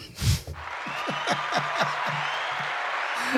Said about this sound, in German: Jetzt müsstest du das Applaus-Ding machen.